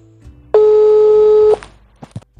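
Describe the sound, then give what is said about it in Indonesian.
A single steady electronic telephone ringing tone sounds for about a second, loud and clear, followed by a few faint clicks and taps on the line, as a phone call is placed at night. “sekarang kita coba telepon”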